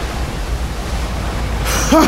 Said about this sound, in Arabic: فرمى ثور شبكة الصيد محاولا القبض على الوحش وبالفعل علق بالشبكة وبدأ يترنح ليهرب منها مما أدى إلى ارتفاع أمواج ضخمة كادت تقلب المركب